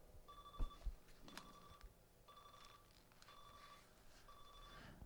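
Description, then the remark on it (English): An electronic alarm clock beeps in a steady repeating pattern, short bursts of high tones with brief gaps, moderately loud against a faint background, with a couple of thumps early on. “I got an alarm clock going off.”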